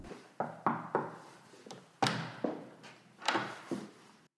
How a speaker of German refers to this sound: Kurz darauf klopfte wieder jemand an die Tür.